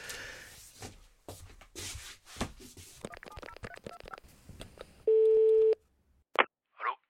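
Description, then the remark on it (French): Handling rustle gives way to a quick run of dialing tones as someone phones about buying an old fire truck, then a single steady ringback tone sounds clearly on the line for under a second, followed by two short bursts. “je tombe sur un pompier, normal, qui m'explique que c'est un ancien véhicule militaire qui a été reconditionné en camion de feu.”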